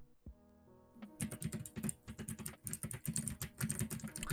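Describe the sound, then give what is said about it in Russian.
Rapid typing on a computer keyboard, a dense stream of crisp clicks and clacks that starts after a brief low hum and continues steadily to the end, with no voices. “Было бы слышно клавиатуру, а я сейчас не играю.”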